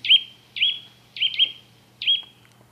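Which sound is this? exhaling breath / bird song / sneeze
bird song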